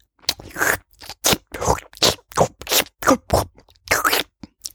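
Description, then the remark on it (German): Quick crunchy nibbling as a caterpillar nibbles up a crumb of breakfast: about a dozen short, scratchy bites in a steady, slightly uneven rhythm, fairly loud and bright, with no talking. “aufgeknabbert und weiter geht's.”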